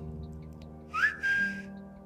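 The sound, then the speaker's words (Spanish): A short, breathy whistle of a legendary creature swoops upward and then holds a thin high note for a moment before fading, heard alone against a faint low hum. “Su silbido, un breve e inconfundible sonido que presagia su aparición.”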